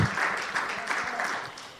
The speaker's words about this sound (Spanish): Démosle un aplauso al Rey de Reyes, Señor de Señores.